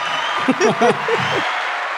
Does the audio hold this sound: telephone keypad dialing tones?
no